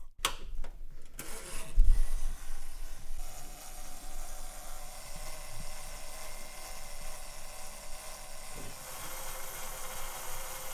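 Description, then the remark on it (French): A hair dryer switches on and runs at a steady, loud whoosh of blowing air with a motor hum underneath. It dries and lightly heats a piece of jewelry to remove traces of water and limescale, continuing without a break to the end. No one speaks. “Avec ce sèche-cheveux qu'on emploie régulièrement dans la salle de bain, nous nous l'employons pour sécher le bijou, le chauffer légèrement afin qu'il n'y ait plus de traces d'eau ni de calcaire et autres petits défauts qu'il pourrait y avoir encore.”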